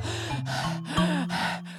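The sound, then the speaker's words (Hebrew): A voice imitates the heavy panting of an exhausted lion coming down the far side of a mountain: a series of about five rhythmic, breathy gasps, steady and loud with a low voiced hum underneath. “כולו מתנשף וירד מצידו השני, תשוש ועייף.”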